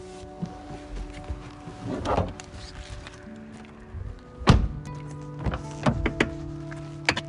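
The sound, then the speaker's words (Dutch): Four folding chairs are loaded onto a car's back seat: a series of uneven thunks and knocks with light rattling, one heavy bump midway, then several quick clacks toward the end. “Dat zijn er vier, dus. Op de achterbank.”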